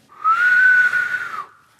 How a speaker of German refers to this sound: So, also könnt, ihr, könnt ihr auf den Fingern pfeifen?